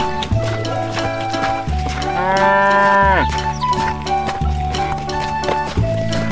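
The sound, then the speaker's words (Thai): A cow, one of two pulling a cart loaded with unhusked rice to sell in another village, lets out one long, drawn-out moo that rises and then slides back down, heard over a steady musical backing with no talking. “มีชาวนาคนหนึ่งได้นำข้าวเปลือกจำนวนมาก ใส่เกวียนแล้วนำไปให้วัวสองตัววยกันลากไปขายยังอีกหมู่บ้านหนึ่ง”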